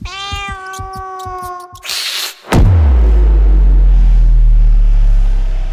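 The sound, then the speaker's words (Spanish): A cat lets out a long, wavering yowl for a couple of seconds, then a hissing burst and a sudden loud thud give way to a deep, steady rumble. “Justo en el momento en el que el gato se dispone a lanzarse sobre ti, su cuerpo y el tuyo empiezan a temblar.”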